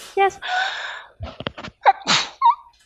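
sneeze

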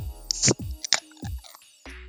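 beer bottle being opened

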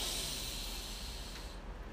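deep breath in

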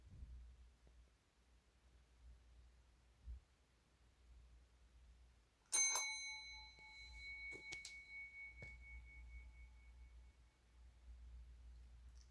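ringing bell

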